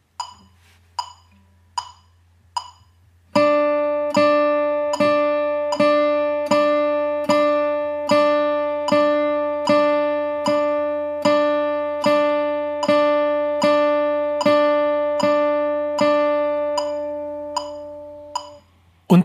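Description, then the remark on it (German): After four sharp clicks counting in, a guitar repeats a ringing chord in an even, steady pulse for about fifteen seconds, laid back behind the beat, over a low constant hum. No one speaks. “Und jetzt hören wir uns natürlich an, wie das klingt, wenn man richtig hinter dem Beat spielt.”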